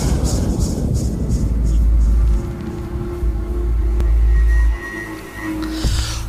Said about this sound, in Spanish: pero antes vamos a la cortinilla